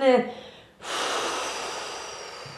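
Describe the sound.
A brief voiced sound gives way to a long, forceful exhalation, a steady breathy rush of air blown out that slowly tapers over about two seconds, as a person blows out their breath on instruction.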